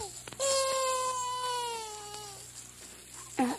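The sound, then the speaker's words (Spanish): A baby lets out one long, drawn-out wail lasting about two seconds, slowly falling in pitch, then fades into a quiet background hum before a brief sharp sound near the end. “Lloró el niño.”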